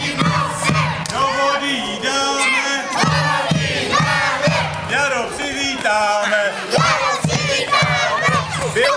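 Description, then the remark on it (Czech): A crowd of voices sings and shouts together in a loud, continuous chant, with rising and falling melodic lines and bursts of cheering across the whole stretch. It is a procession from the Czech House in Kruščica, Serbia, carrying the straw winter-queen effigy Morana to throw into a stream, singing the folk song "Moranu nesem s velikým nosem". “Druhý den se sešli v Českém domě a vydali se průvodem hodit Moranu do potoka. Při cestě se zpívalo Moranu nesem s velikým nosem.”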